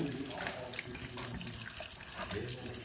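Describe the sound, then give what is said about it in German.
Liquid pours steadily and splashes through a funnel held up high, a continuous gurgling and trickling with brief brighter splashes, while faint voices murmur in the background. “Und wenn ich es hier hochhalte, dann plätschert es nicht so doll.”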